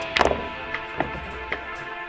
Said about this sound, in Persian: همزمان با پک زدن نفر دوم بر سیگار به آن ضربه زد توپ سفید بدون زد و خورد با توپ های دیگر داخل سوراخ افتاد